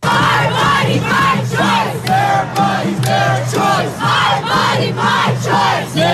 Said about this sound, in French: À Washington, Boston, Los Angeles ou Seattle, des milliers de manifestants ont crié leur colère, vous l'entendez, contre la Cour suprême qui menace de revenir dessus.